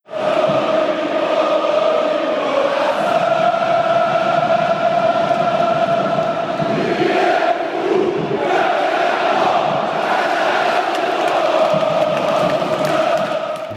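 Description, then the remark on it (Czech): The roar of a 100,000-strong crowd at the Maracanã stadium, played into the ears of visitors as they climb the steps up to the pitch: continuous cheering and chanting with sustained tonal swells of massed voices, loud and unbroken throughout with no individual talk standing out. “no a teď jsou tam ty schůdky nahoru, které mi se vystupuje na ten trávník a každý ten návštěvník si to může vyzkoušet po těch schůdcích jít a do toho mu pouštějí právě do uší řev 100 tisícové návštěvy na Marakana.”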